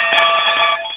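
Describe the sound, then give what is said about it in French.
A metal hockey puck for visually impaired players, 5.5 inches in diameter with small ball bearings inside, gives off a steady, bright, ringing rattle that stays loud for the full second, with no talking over it. “oui, et c'est fait du métal avec des petits ball bearings là-dedans.”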